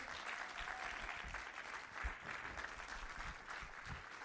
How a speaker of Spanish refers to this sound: ¿Alguien está acá? ¿Puede dar un aplauso fuerte al Señor?